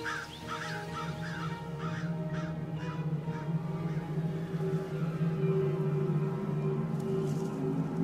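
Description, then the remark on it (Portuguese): Crows caw in a quick run of about seven harsh calls over the first few seconds, then fade, leaving a steady low droning hum underneath throughout. “Corvos também costumam ir atrás de carniça.”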